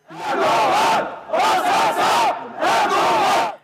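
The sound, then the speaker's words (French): A large crowd of Kurdish protesters in the rue d'Enghien area of Paris chants the name of the man they consider responsible for a shooting, three loud rhythmic bursts with short pauses between, voices rising and falling together in a repeated melodic pattern. “Les manifestants ont commencé à scander le nom de celui qu'ils considèrent comme le commanditaire, puis la tension est montée très vite.”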